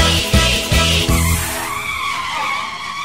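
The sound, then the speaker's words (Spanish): A car engine revs in a few loud, pulsing bursts, then gives way to a sustained, high-pitched tire screech as the vehicle skids. The sound is loud, with no voices. “nos iremos a pasear, vamos de paseo en un auto feo, pero no me importa porque llevo torta.”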